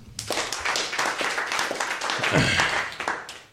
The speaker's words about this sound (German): Auch mal wieder einen Applaus verdient.